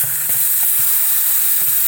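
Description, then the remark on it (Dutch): Steam hisses steadily out of a cooking pot's vent as the pot is vented after the heat has been turned off, a loud, continuous high-pitched rush with faint ticking and rattling underneath, with no voices. “En eh, we gaan hem nu eh, Ik ontluchten.”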